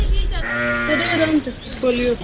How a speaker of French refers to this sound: Nous sommes là dans une grande cour, très très grande cour, avec au milieu des fourrages, une chèvre. C'est une cour de Tamashek, c'est-à-dire de Touareg.